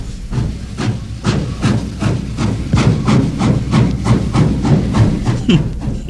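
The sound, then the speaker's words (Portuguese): A steam train chugs away from a small village, departing with no one having got off, in a steady run of loud, hissing chuffs at an even rhythm, heavy rumble underneath, continuous with no voices. “O trem parte partiu e ninguém desceu a guia.”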